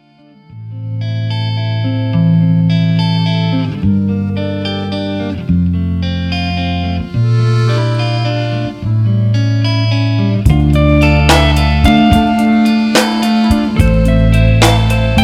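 A mid-tempo pop-rock oldie from the early 1990s with sustained chords and a steady bass line, building in fullness after ten seconds as cymbals and brighter guitars enter; loud throughout with no singing yet.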